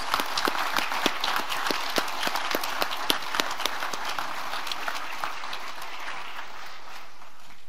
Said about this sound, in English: Let's have a round of applause for all of our certificate of ministry preparation graduates.